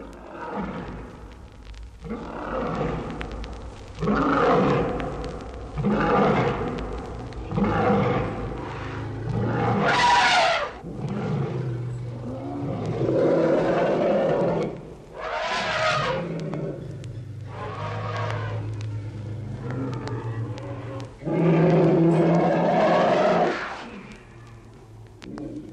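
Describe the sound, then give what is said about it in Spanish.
An elephant bellows in fright at the smell of a tiger, letting out a long series of loud, harsh roaring calls one after another, with a couple of shrill, trumpet-like blasts among them. “Del olor del tigre no más, brama con espanto el elefante.”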